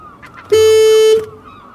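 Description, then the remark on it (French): A single loud, steady horn blast lasting well under a second, buzzy and sustained, standing alone against quiet background noise. “Je trouve pas le klaxon.”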